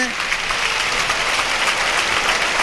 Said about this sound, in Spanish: Bueno, se retira Manzanares del toro que ya fue atronado por Luis Vázquez y recibe una fuerte ovación el torero de Alicante.